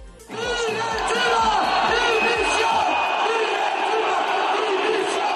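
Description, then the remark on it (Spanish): A large stadium crowd of football fans in Seville shouts protest chants in unison, a dense, loud roar of many voices with rhythmic bursts, sustained throughout without pause. “Ayer en Sevilla oíamos gritos que no nos gustaban.”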